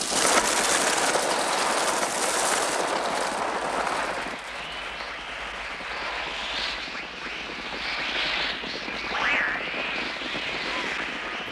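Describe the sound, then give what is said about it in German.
Electronic Trautonium bird sounds from Alfred Hitchcock's film The Birds, devised by Oskar Sala with Bernard Herrmann: a loud, dense wash of hissing, fluttering noise, later joined by wavering shrill squeals that rise and fall. No one speaks. “Der eigentliche eigentliche Stammkomponist von Alfred Hitchcock, Bernard Herrmann, hat vom Regisseur den Auftrag erhalten, zusammen mit Oscar Sala nach diesen Klängen zu suchen, die wir nun aus dem Film kennen.”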